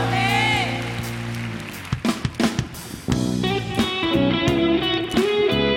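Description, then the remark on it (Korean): An audience claps during worship, applause of thanks and glory offered to the Lord, over sustained music and voices, the applause a steady wash of noise with a few sharper bursts midway before continuing at full volume. “찬양할 때 우리가 드릴 수 있는 최고의 감사와 영광의 박수 주님 올려드리기 원합니다.”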